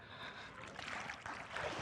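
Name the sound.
water sloshing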